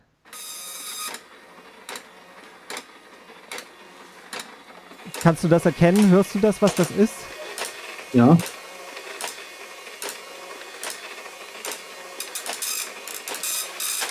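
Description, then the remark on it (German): A nine-pin dot matrix printer rattles through its lines, a harsh buzzing rasp with rhythmic carriage strokes running steadily throughout, while two people briefly talk over it. “Nee, es ist tatsächlich ein Neunadeldrucker, aber du hast relativ problemlos das erkannt.”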